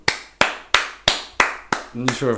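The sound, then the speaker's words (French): Six sharp hand claps in a steady, even rhythm, each crisp and loud with a quick decay, followed by a person starting to speak just as the clapping ends. “Je, l'applaudis.”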